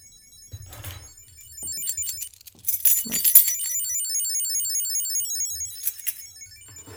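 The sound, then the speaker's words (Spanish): A Chipolo Bluetooth key tracker, set off with the locate-keys button in its phone app, rings with a rapid, high-pitched electronic chirping melody that repeats steadily, after a few seconds of keys jingling and rattling as they are handled. “Le voy a dar en la aplicación al botón de localizar las llaves y va a empezar a sonar para que veas cómo es.”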